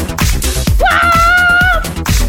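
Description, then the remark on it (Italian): A woman lets out a high, sustained scream that swoops up sharply and holds steady for about a second, cutting through loud, dense background noise. “E lei urla.”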